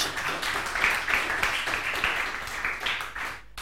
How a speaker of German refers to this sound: Da kann man auch mal einen kleinen Applaus geben, natürlich.